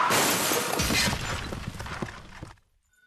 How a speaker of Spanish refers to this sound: Mientras atendía su puesto de taco se oye un rechinido de llantas.